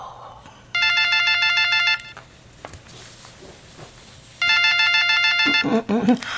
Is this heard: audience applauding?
no